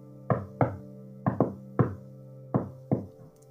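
Faint, hollow knocking on a door or wall, about seven raps in loose pairs with short gaps, each ringing briefly, with no voices present.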